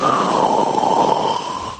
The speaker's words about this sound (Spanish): No, pues lo está pasando bien. Dentro su propio ronquido lo está disfrutando. Me ha encantado este ronquido porque tiene varias fases. Va por fases. Pero luego como que, como que saborea su propio ronquido.